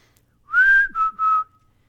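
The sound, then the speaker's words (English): A clear whistled mountain chickadee call: three pure notes, a longer higher first note followed by two shorter, slightly lower ones, fairly loud with no talking. “Where we go, we hear the bird, the mountain chickadee. It sounds like this.”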